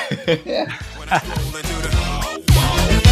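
A person howls in imitation of a dog or wolf, with rising, wavering cries over about three seconds, mixed with laughter and voices, fairly loud.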